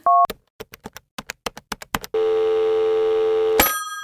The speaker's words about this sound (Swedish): Vi ringer Anton. Har du nummer eller?